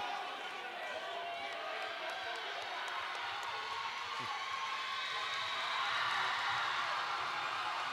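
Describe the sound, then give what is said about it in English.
A large arena crowd roars at a women's basketball game, a dense, steady wall of cheering and chatter that swells a little louder near the end. “You hear the crowd.”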